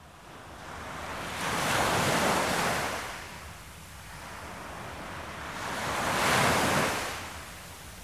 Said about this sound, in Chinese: 第二天早上，我是被海浪的声音给拍醒的。